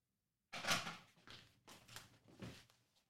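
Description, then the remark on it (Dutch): A front door opens with a sudden clatter as someone answers the doorbell to receive a package, followed by a few softer rattling thumps as it is handled and pushed shut, with no voices. “Mijn, mijn eh, zelfkritische gedachten, die roepen natuurlijk van, dat kan niet in een podcast en eh, een deur openmaken.”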